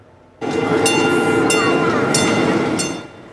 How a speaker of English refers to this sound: A lot of time and skill goes into building model trains, and this weekend, dozens were on display in Vancouver.